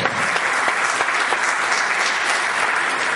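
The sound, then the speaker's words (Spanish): Steady, dense audience applause thanking the event's supporters, many hands clapping at once in a continuous loud wash that holds evenly for a few seconds without pause. “Un fuerte aplauso para ellos y gracias por apoyarnos.”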